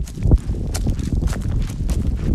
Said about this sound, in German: Hört ihr, wie windig das ist? Das erschwert so einen Ohrenschmaus sehr.